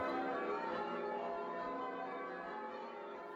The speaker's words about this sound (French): Les cloches que vous entendez sont celles de la cathédrale Holy Trinity dans le Vieux-Québec. Leur carillon vous accompagnera pendant que vous vous dirigerez vers la première pierre tombale.